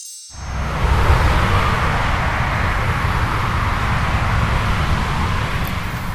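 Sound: motorway traffic passing by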